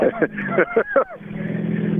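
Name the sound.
car engine accelerating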